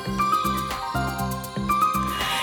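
Instrumental background music plays on its own, with bright bell-like tinkling over a steady, repeating pattern of warm low notes at a moderate, even volume.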